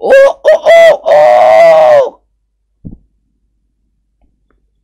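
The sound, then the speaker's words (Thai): A man's voice imitates a rooster's crow in a zoo: three short, sharp calls followed by one long, drawn-out note, loud, then a brief faint thump and silence. “ตะเบงเสียงไก่ขันดังลั่นบริเวณสวนสัตว์”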